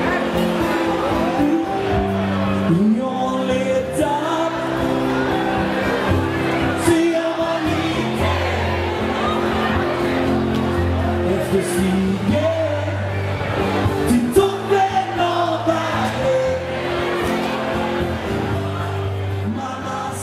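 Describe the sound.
A crowd at the Royal nightclub in Kiruna cheers and whoops over a live band's steady, droning music, with scattered shouts and voices throughout at a constant, fairly loud level.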